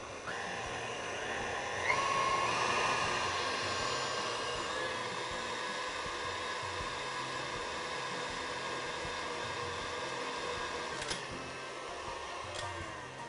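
A blender runs steadily for the whole stretch, blending a batter with flour and a pinch of salt to pour over plums; a loud, even motor whir with a faint high whine. It surges slightly near the start, then holds a constant roar with no one talking.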